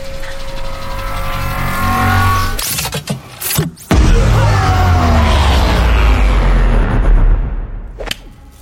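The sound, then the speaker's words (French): A machine is switched on: a loud mechanical roar builds like an engine revving, broken by sharp whooshing bursts around the middle, then surges again into a sustained, rumbling drone before fading at the end. “Attention, Jack Je vais activer la machine.”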